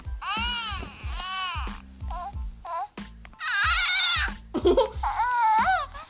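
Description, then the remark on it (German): A Baby Yoda plush toy, pressed when someone sits on it, plays a string of high, warbling coos and squeaky baby-like chirps with giggly bursts, fairly loud, over a steady low rhythmic thumping beat. “Er hat eigentlich gerade nur auf den Baby Yoda gedrückt, aber egal.”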